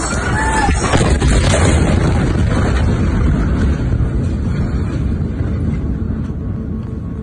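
A massive explosion in Beirut, Lebanon, on a Tuesday: a loud, sustained roaring rumble with dense low-end boom that fills the whole stretch, with no voices heard.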